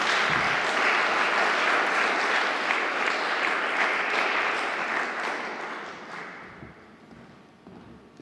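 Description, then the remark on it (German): Audience applause as Herr Strohschneider is given the floor for his lecture: a dense, steady wash of many hands clapping that holds strong for several seconds, then gradually thins and fades out toward the end. “Applaus”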